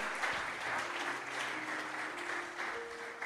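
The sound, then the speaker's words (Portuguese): Sustained applause to the Lord from a crowd at the Restaurando o Altar worship conference, a dense, steady wash of clapping that holds at an even volume throughout, with a faint tonal hum underneath. “Aplauda ao Senhor.”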